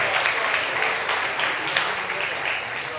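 An audience claps steadily for a volunteer coming forward for a trust fall, a dense, even wash of many hands that stays loud and consistent for the whole stretch, with faint voices mixed in underneath.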